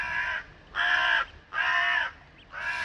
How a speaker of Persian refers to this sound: نمیدونم سرشی دعواشون شده بود که این همه قارقار را انداخته بودند ها کنار پنجره ایستادم و تو هوای تاریک تماشاشون میکردم